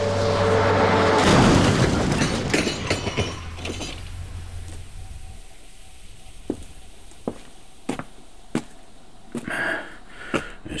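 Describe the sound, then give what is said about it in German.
An oncoming truck, its driver stung by a wasp, skids across the median strip and slams into a car with a loud, heavy crunch. A low rumble fades over several seconds, then scattered sharp clinks and clatters of debris follow. No one speaks. “und so warf er nur einen kurzen Blick auf den entgegenkommenden Lastwagen, der plötzlich in Schlingern geriet und über den Mittelstreifen rutschte.”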